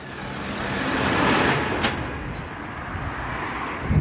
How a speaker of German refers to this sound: So, Moment, es fährt hier gerade ein Traktor vorbei.